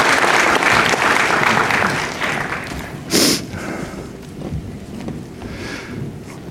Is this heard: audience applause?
yes